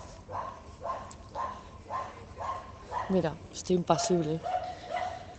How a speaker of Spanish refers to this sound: El perro ladra.